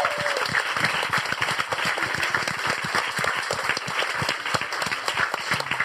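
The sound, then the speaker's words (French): An audience claps steadily for several seconds to welcome a man being introduced at the start of a broadcast, a dense, even patter of many hands at a constant, fairly loud level, with no voices over it. “Applaudissements pour Monsieur”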